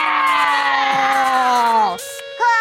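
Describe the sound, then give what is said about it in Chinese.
A group of children, stretching out their hands like tiger claws, let out a loud, drawn-out roaring yell imitating a fierce tiger, the pitch sliding downward for about two seconds, then a short pause and another brief shout. “那我们现在可以学老虎伸出爪子，一起来发出凶猛的声音吗？”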